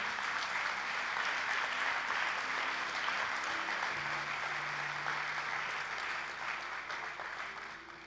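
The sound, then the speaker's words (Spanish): Sustained applause from a large church audience giving the Lord a loud round of applause, a dense wash of clapping that stays steady for several seconds before tapering slightly at the end, with faint voices beneath. “Démosle un fuerte aplauso al Señor que Él es bueno.”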